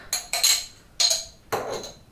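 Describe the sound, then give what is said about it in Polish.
A spoon scrapes and clinks against a mustard jar and a small separate dish as mustard, about three teaspoons, is transferred into the dish: about four sharp taps spread irregularly over two seconds, with no talking. “i aby uniknąć wkładania noża, którym będziemy smarować mięso musztardą, z powrotem do słoika z musztardą, przekładamy część musztardy do oddzielnego naczynia.”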